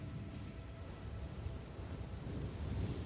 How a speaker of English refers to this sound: As the night drags on, the weather deteriorates and the temperature drops further. Pummeled by the driving rain